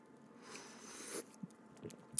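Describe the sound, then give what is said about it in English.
A quiet slurp of coffee lasting about a second, followed by a few small clicks and soft mouth noises. No one speaks. “slurp my coffee there.”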